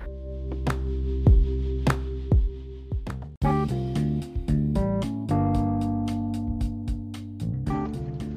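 Rock guitar compositions by a multi-instrumentalist play in the background on their own at a steady level, opening with sustained bass tones and sharp drum hits before a fuller, distorted guitar section kicks in partway through.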